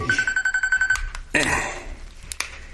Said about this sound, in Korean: 세 분이 밤늦도록 술을 마셨고 새벽쯤 창술 오라버니 휴대폰으로 전화가 온 거죠.